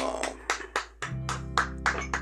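A short burst of applause welcoming an interview guest: about nine sharp, evenly spaced claps in a steady rhythm, fairly loud, with a low sustained hum coming in halfway through.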